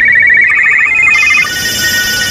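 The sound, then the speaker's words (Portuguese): A telephone rings with a rapid, bright electronic trill, repeating in quick pulses for about a second and a half, loud, with no voices. “Como vocês puderam ouvir, a sociedade acaba de levar uma chamada.”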